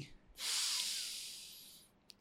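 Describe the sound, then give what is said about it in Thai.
A single long, deep breath drawn in through the nose as part of a deep-breathing exercise, a steady airy hiss lasting about a second and a half before fading, with no talking. “ดังนั้นเขาบอกข้อที่ 2 เมื่อกังวลปุ๊บคามดาวก่อนคามดาวหายใจลึกๆนะครับ take a deep breath นะนะสัก3ทีหายใจเข้าสัก 4 วิ”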